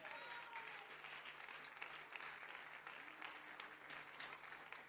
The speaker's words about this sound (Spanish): ¿Cuántos alaban al Señor? Amén. Bríndele palmas de alabanzas al Señor.